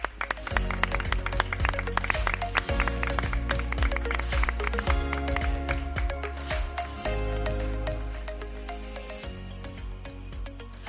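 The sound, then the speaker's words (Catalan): A crowd at a party applauds steadily for about eleven seconds, a dense, crackling wash of many hands clapping, with a low sustained musical tone running underneath. “Un fort aplaudiment”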